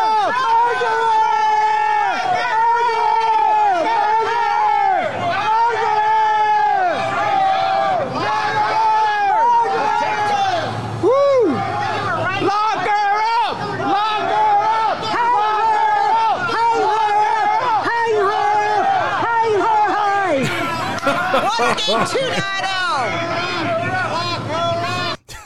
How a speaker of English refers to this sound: We got murderer, hang her up. We got uh, people were screaming everything. Lock her up. Hang, uh, eh, uh, you guys heard it all. That was the uh, welcoming reception in New York City today, ladies and gentlemen.